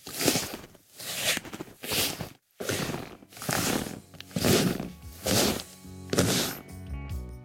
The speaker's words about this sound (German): Wir haben bei diesem Sound keinen einzigen Kompressor verwendet. Dadurch konnten wir die Dynamik eines Schrittes perfekt abbilden. Auch auf einen Hall haben wir komplett verzichtet. Und so klingen die fertigen Schritte im Schnee.